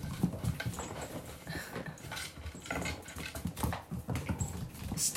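Busy, irregular clattering of pets' paws and claws scrambling across a hard wooden floor not fully covered by soundproof mats, fairly loud, with scattered taps in quick bursts and no talking.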